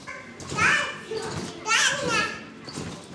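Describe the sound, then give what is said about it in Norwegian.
Children's excited voices and shrieks fill a busy indoor playroom in Handelshuset in Førde, where children queue to get onto a trampoline and parents sit watching; overlapping chatter rises in two loud bursts with faint thumps of play in the background. “På lekerommet i Handelshuset i Førde. Ungene står i kø for å komme seg opp på trampolina.”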